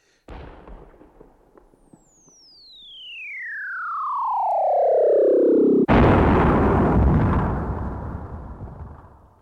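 A cannon shot: a long descending whistle of a flying shell, ending in a single loud explosion whose broad rumbling roar lingers for several seconds. No voices.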